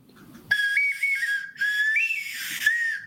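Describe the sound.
Someone whistles a short film theme melody without anything in his mouth, a clear, steady tone that steps between a few notes across three connected phrases with brief breaks, and no talking.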